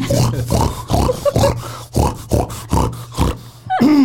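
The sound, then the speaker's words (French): A pig grunts and oinks in a rapid, rhythmic series of about a dozen loud snorts, ending with a brief rising squeal. “Là, il est en train de muer, là, le cochon.”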